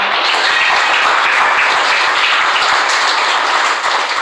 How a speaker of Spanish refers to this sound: Denle un aplauso al Señor, por favor, esta noche.